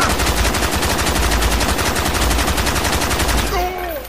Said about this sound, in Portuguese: Royce veio da esquerda e disparou uma rajada.